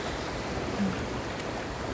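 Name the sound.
ocean waves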